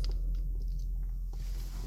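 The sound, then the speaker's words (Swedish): Wet chewing of a thick, lumpy, colour-free energy gel, with soft squishy mouth sounds and small clicks over about two seconds, no talking. “Men det här är ju en tugghjälp.”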